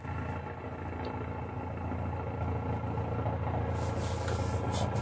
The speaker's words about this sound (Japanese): うるさいな。久々ですね。日本航空学園ですからね。ヘリコプター降りてきてるからね、今。